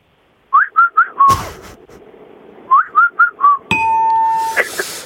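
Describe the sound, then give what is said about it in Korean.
A person whistles an imitation of birdsong heard in the mountains: birdlike phrases in two bursts of four quick rising chirps each, the second ending in a long held whistle, with a sharp clatter after each burst and no talking. “산속의 새소리는 뭐예요?”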